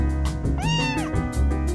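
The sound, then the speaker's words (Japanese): A single clear meow from the cat Pete rises and falls in the middle, fairly loud, over a steady background of soft music or ambient hum. “猫は興味なしかそりゃそうだな”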